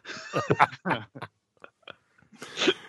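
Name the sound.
swallowing a drink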